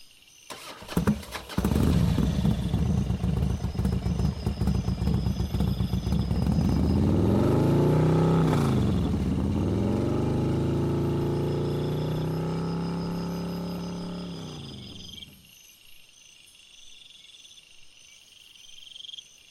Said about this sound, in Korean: 씨는 마지못해 오토바이에 날 태운 뒤 출발했다.